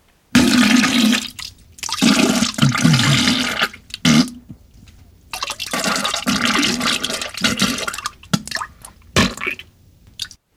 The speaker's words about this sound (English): Are you aware that there is this diarrhea crapping sound playing right at the end of the podcast? Is that supposed to be in there or something?